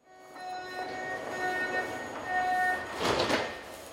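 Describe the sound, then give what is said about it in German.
Ambience in an underground subway station in Munich in early October 2019 with a train present, steady tonal whine and chime-like tones over a rumbling hum, then a brief burst of hissing air near the end, like doors operating. “ein U-Bahnhof in München Anfang Oktober 2019.”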